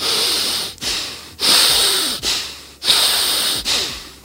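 Loud, forceful breaths demonstrated in quick succession, about five heavy inhale-exhale bursts with brief gaps, with no talking.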